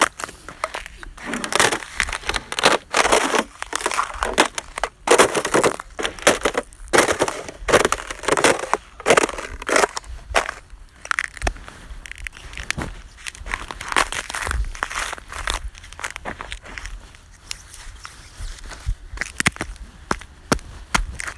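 Repeated crunching and crackling footsteps of a person walking on brittle ice, fairly loud, with irregular bursts of cracking and crushing that thin out toward the end.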